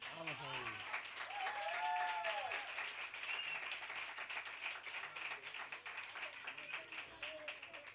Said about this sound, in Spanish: Y este es el aplauso que os merecéis.